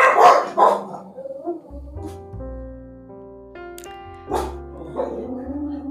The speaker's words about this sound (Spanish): así que aquí va, si mi perro me deja, que está a punto de ladrar a las gaviotas.